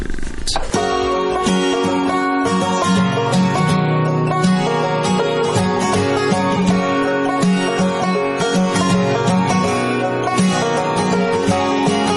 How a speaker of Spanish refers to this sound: una canción del grupo de rock alternativo